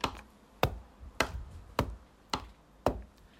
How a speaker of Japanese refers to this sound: 送ってくれた印鑑を押す音これ印鑑押しまくってんですよねこれあの録音してる風景を思い浮かべると 笑えるっていうか笑えるっていうかちょっと怖いっていうね